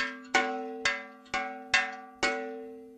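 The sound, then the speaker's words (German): An old forged iron sheet bell rings alone, struck five times at a steady, slightly uneven pace, each dull, muted clang fading quickly over a low sustained hum. The bell was probably forged in the 8th century at the island monastery of Iona in western Scotland, founded by Saint Columba. “hohe Eisenblechglocke, die wahrscheinlich im 8. Jahrhundert in dem vom heiligen Kolumban gegründeten westschottischen Inselkloster Iona geschmiedet wurde und wohl mit einem iroschottischen Wandermönch nach Bayern kam.”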